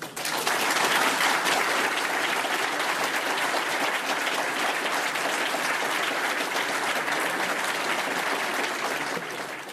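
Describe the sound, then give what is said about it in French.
Sustained applause from an audience with healthcare workers in the front row, a dense, steady patter of many hands clapping at an even loudness for nearly ten seconds, with no voices standing out. “Alors on observe, quand on observe bien, il y a des soignants qui applaudissent au premier rang et d'autres qui n'applaudissent pas.”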